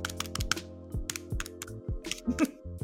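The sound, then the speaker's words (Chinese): A person vocally imitates a calculator while working out a five percent deduction from a tour fee: quick, irregular clicky taps like keys being punched, mixed with low buzzy tones that dip in pitch, moderately loud with no words. “请问这是人工人工发出的计算声音吗？”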